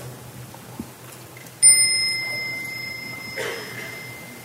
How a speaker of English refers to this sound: So when you hear the small bell, please stand up and bow to the Sangha and go out and continue the practice.